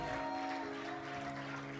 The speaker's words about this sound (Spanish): Ay, dáselo aplauso a él, dáselo a él.